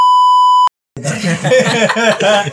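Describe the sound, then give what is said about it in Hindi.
A loud, steady, high-pitched censor bleep holds for about two-thirds of a second and cuts off sharply. After a short silence, lively voices come in. “ये वर्ड ऐसे सेंसर करना पड़ेगा आजकल सिचुएशन है”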